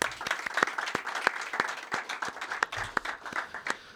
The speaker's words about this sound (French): Merci, je vous applaudis tous déjà. Merci.